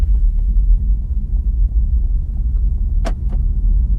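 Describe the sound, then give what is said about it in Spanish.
A car engine rumbles steadily, a deep continuous drone as the car starts up and begins to move, with two brief clicks near the end. “Y ya estamos empezando y ya nos estamos moviendo.”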